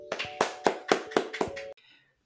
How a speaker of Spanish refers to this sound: El día de hoy tenemos un invitado muy especial, pero antes un fuerte aplauso.